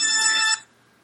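A mobile phone ringtone sounds loud from a phone left behind on the floor: a bright, buzzy electronic tone that rings for about half a second, then cuts off abruptly into near silence.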